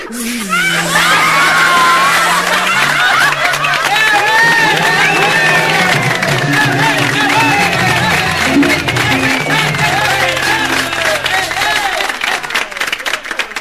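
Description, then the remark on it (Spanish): A large audience claps and cheers loudly and without pause, dense applause mixed with excited shouts and whoops, sustained for the full length. “Ay, cómo aplauden.”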